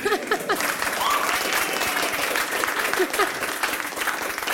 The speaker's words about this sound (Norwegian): Det er verdt å klappe litt for bompengestriden.